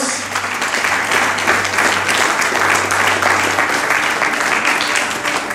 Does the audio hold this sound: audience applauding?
yes